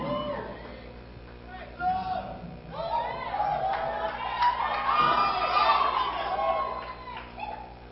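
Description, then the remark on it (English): An audience bursts into joyful shouting and cheering, many voices rising together into a loud, sustained roar of whoops and high-pitched cries that swells and lingers. “So will you shout a shout of joy?”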